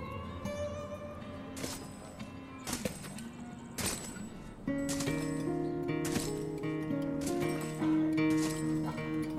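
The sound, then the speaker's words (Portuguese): Sharp, ringing hammer blows on a horseshoe as a horse's shoe is being changed land about once a second, roughly seven strikes in all, loud over steady sustained musical tones. “Vê que ele tá trocando lá uma ferradura, de cumprimento, mas ele tá trocando a ferradura lá dos cavalos.”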